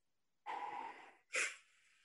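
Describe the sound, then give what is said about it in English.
A person imitates a football player's heavy, deep breathing after a play went badly: one long, rough, noisy breath followed by a short, forceful huff, both loud, with no talking. “Can you give me your impression of him breathing after things did not go well on a particular play?”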